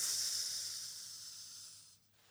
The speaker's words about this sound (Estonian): sümboolne säraküünal on meil käes praegu.